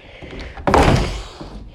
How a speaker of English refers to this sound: He's awoken to creaks and the sound of his door slamming inside.